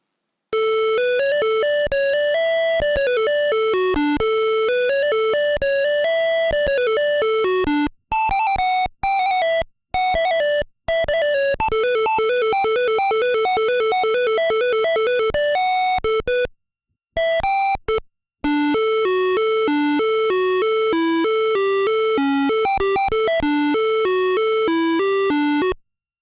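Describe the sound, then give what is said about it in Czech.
Bright, bouncy chiptune-style game music with a quick beeping melody over steady bass notes, playing loudly without voices, broken by a few brief dropouts and ending abruptly. “Tak si pojďme pustit dvě ukázky ze hry, aspoň že ta hudba zní odlehčeně.”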